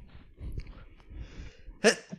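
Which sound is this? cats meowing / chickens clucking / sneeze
sneeze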